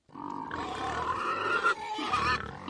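A pig grunts and snorts steadily for a few seconds, fairly loud, with rough throaty bursts and no voices.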